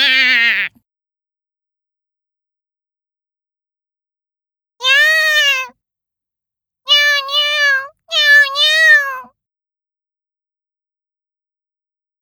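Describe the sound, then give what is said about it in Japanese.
A cat meows several times, clear: one brief meow, another after a long pause, then a quick pair of drawn-out meows, with silence in between and no talking. “猫が来ました。”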